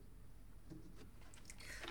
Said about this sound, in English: drinking water straight out of the gallon like a freaking gym bro.